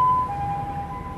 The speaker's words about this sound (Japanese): ごめんなさいちょっと救急車の音があ向こう行ったはい ごめんなさいね